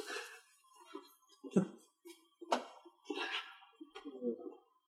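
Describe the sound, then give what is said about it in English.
Keys are lifted out of a bowl: a quiet run of metallic jangles and clinks, with a few sharper rattles in an irregular rhythm and no one speaking. “Yeah, well, just get the keys out of the bowl, and then that'll be it.”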